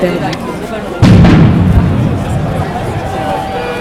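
impact, firecrackers exploding

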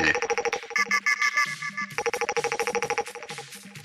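signal or alarm, telephone ringtone ringing

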